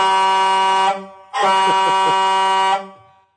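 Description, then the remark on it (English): Two loud, sustained horn blasts, the first just under a second and the second longer at about a second and a half, with a brief pause between them. Strong, brassy truck horn tone. “I love how he tries to catch up with you. so I switch horns on him.”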